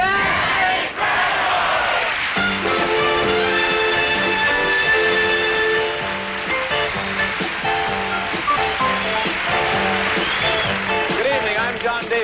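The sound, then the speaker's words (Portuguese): A large studio audience of the TV series That's Incredible shouts the phrase "That's Incredible" together in a loud, sustained roar, with bright theme-style music sounding underneath throughout. “ou como puderam ouvir no início toda a plateia berrar, That's Incredible.”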